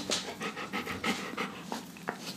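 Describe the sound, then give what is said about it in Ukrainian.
The speaker's dog, Leo, pants rapidly, a steady series of quick, breathy huffs repeating through the whole moment with no voices. “Прийшла моя собака зазвичай.”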